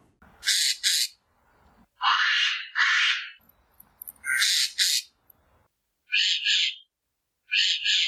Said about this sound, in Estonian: ja kui nüüd pasknaer sai juba välja käidud, siis palun